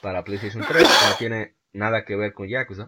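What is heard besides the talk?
sneeze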